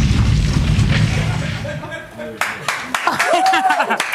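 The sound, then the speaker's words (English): A loud, rumbling explosion effect roars for about two seconds, then gives way to sharp pops and crackling bursts, with voices and whooping sounds mixed in near the end. “We don't run from an explosion. We let the explosion run from us.”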